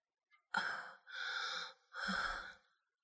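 Three heavy, ragged breaths in a row, each a loud, breathy rush of air lasting about half a second, separated by brief pauses, with no talking.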